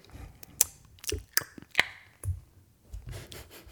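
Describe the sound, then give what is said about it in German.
Several attempted finger snaps: a handful of short, dry clicks and rubbing taps spread unevenly over a few seconds, mostly soft with a couple of sharper cracks, and no talking. “Das war ein versuchter Schnipfer.”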